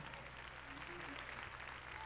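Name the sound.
audience clapping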